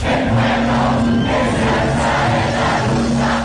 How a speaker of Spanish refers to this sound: Así se escucharon los festejos en Chile después de que el Servicio Electoral informó que con un total del 99.66% de las mesas escrutadas, los resultados preliminares dan la victoria al candidato de izquierda